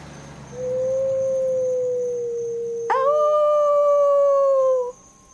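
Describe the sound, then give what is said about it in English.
A dog lets out a long, steady howl that holds one pitch, then jumps higher partway through and sustains before cutting off. It's loud and alone, with no talking. “The dog howled.”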